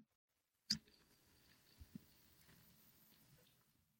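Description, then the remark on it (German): Fire crackling played by an app from a small speaker: a sharp pop, then sparse faint snaps and ticks over a soft, steady hiss, fairly quiet with no one talking. “Das ist Feuerknistern.”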